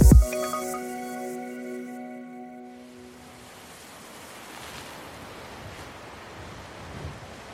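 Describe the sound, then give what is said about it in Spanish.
A ringing tonal chord fades out over the first few seconds, giving way to a steady, full rush of ocean surf and wind out at sea that continues evenly to the end, with no voices. “En medio del mar, el recurso del viento para generar energía alcanza su máximo potencial.”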